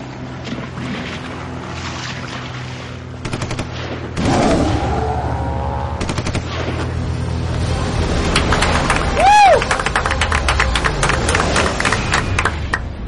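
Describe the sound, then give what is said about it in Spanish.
A short, dramatic festival theme jingle of the Sitges film festival, played at the start of each screening, builds from a low rumble into booming hits and swooshing effects, with a bright rising tone near the end and two sharp claps. “sí, amb els dos aplaudiments i, i tot, eh, comença cada sessió a la ciutat de Sitges.”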